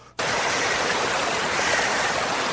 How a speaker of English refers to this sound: as we close our eyes we are walking to the most beautiful waterfall you've ever seen. to a green forest with lots of big, luscious green trees. There's two deer on your right, there's a rabbit on your left, and you can hear the waterfall.